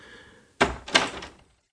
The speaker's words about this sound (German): Langsam schlurfte er zur Tür und drückte die Klinke herunter.